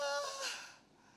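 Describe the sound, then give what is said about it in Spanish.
A single breathy, voiced gasp imitated by a person, opening with a brief tone and fading into a rushing exhale, fairly loud. The person imitates being out of breath while running a 15-kilometre endurance race. “La respiración, el corazón, no hallaba ni cómo respirar, se me olvidaba que se respira por la nariz o por la boca, por la boca, la nariz, la boca, la nariz, la nariz, la boca.”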